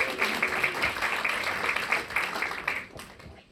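An audience applauding, a dense crackle of many hands clapping at a steady level for a few seconds with no voices on top, fading slightly toward the end.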